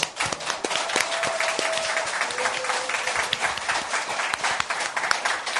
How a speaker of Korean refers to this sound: 국민TV 시사 토크 맘마이스 여러분 힘찬 박수와 함께 시작하겠습니다.